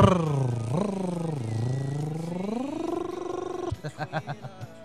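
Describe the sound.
A voice imitates a small removable motor once fitted to bicycles, with a buzzing, rising and falling drone that revs upward, then breaks into a few short sputtering putts at the end.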